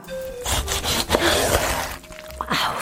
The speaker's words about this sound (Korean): 자른다. 자른다. 아삭아삭 먹기 좋게 자른다. 입안에는 들어가지도 않았는데 벌써부터 아삭함이 느껴진다. 살아서 밭으로 뛰어나갈 것 같은 이 신선함, 줄기부터 이빨이까지 골고루 잘 묻은 이 양념, 식욕을 자극하는 영롱한 붉은 빛깔